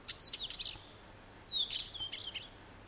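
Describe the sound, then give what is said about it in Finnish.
A northern wheatear sings two short, scratchy phrases of high whistles and chattering notes, separated by a brief pause, against a quiet outdoor background. “Viikon luontoääni: Kivitasku”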